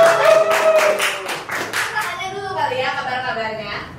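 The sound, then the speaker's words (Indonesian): An audience claps in a quick, dense patter for about two seconds, with voices calling out over it, then the clapping fades as talking and cheering carry on. “Weh, tepuk tangan.”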